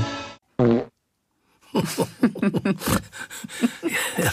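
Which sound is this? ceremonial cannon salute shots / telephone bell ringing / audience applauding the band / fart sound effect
fart sound effect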